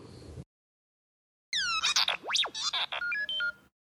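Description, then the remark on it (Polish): A phone's incoming text message alert plays: about two seconds of bright electronic chirps, a swooping whistle and quick stepped beeps, clear, after a brief burst of noise and a pause. “Mam ci wysłać SMS, a mogę iMessage'a?”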